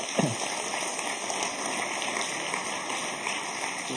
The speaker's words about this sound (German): Gebt ihm ein herzliches Klatscher.